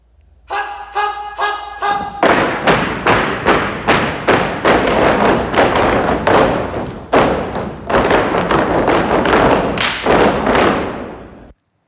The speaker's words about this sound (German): Naja, ah und dazu dann Schuhe, die wie Hufe aussehen. Da gibt es auf der Bühne dann auch schon mal ein rechtes Getrampel.